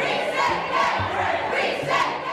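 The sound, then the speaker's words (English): A crowd of Florida students staging a walkout against the Parental Rights in Education bill shouts together in a dense, continuous roar of many young voices, loud and steady, with rising swells of yelling and no single voice standing out. “We have kids throughout the state who have staged walkouts.”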